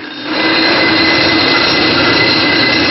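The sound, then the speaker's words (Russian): A loud, continuous roar of an abrasive grinding stone biting into metal castings at a factory, removing flash left after casting, harsh and screeching with steady high whining tones, unbroken, with no voices. “Вот так грохочет абразивный камень.”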